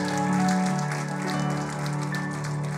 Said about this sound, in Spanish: ¿Cuántos dicen amén? Denle ese aplauso fuerte a Cristo.